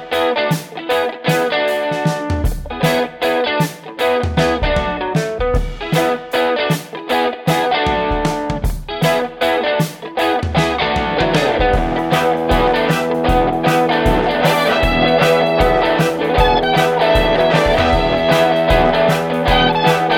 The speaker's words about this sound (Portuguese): Tá bom, solta a vinheta aí então, vai.